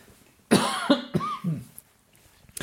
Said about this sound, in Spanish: Voy a toser.